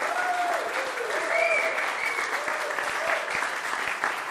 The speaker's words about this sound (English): And on the count of three, congregation, I want you to express your love and support for them with a round of applause and cheer in. Okay, don't even wait for three. That's how great they are.